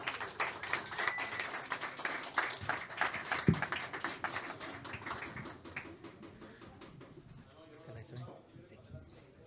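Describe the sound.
An audience applauds to welcome a writer to a poetry reading, with dense, steady clapping for about six seconds before it thins out and fades, with murmuring voices underneath and continuing after.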